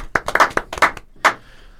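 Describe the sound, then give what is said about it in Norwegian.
A brief burst of applause from a few people clapping in Tore Ginnussen as a stopper pick for the team: around eight sharp, irregular claps over about a second, then a final clap that fades out. No one speaks. “Da klapper vi inn Tore Ginnussen”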